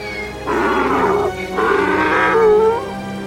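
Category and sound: animal, donkey braying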